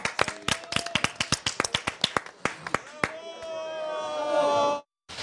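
An audience applauds after a ribbon cutting with a quick, uneven run of sharp claps for about three seconds, then the clapping gives way to a sustained ringing tonal sound that cuts off abruptly.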